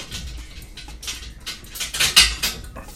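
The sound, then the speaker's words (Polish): An old, sick dog makes restless noises: a run of scratchy, rustling bursts and soft clicks with faint whimpering tones, irregular and growing slightly louder toward the middle, with no one talking. “Przepraszam, mój pies daje strasznie popalić. To jest stary pies, chory pies i naprawdę trzeba bardzo kochać swoje zwierzę, żeby to wszystko wytrzymywać.”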